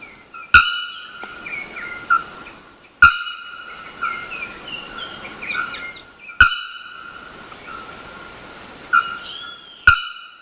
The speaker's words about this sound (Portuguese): Esse é um dos sons mais emblemáticos, na minha opinião, da Mata Atlântica é, brasileira. É o som da famosa araponga, ou ferreiro, e vários outros nomes pelo qual é conhecida essa ave.